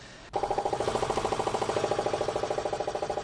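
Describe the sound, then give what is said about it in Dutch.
A loud engine of a boat carrying about 70 people starts abruptly and runs steadily with a fast, regular pulsing throb and strong mid-range harmonics, continuous with no voices. “Nou, dan zit je met 70 man in een boot, maar het enige wat je hoort is eh, alleen maar één grote harde motor.”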